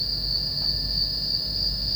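Crickets chirp in a steady, unbroken high-pitched trill on a track of a music album, with a soft low rumble underneath and no voices.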